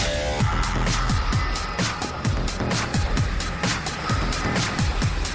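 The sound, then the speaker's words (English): A loud, continuous rumbling roar fills the air, thick with rapid crackling pulses and popping bursts, like a powerful rocket engine thundering at liftoff, with no voices. “All engines running. Commit. Liftoff.”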